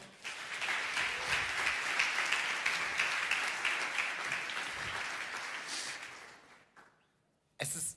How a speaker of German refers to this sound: gebt ihm einen Applaus.